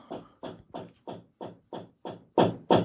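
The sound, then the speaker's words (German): A steady run of about nine knocks or hammer blows on a wall, evenly spaced and fairly quick, somewhat muffled, with the last two strikes noticeably louder. No one speaks. “Ja, oh, jetzt fangen sie an zu klopfen an der Wand.”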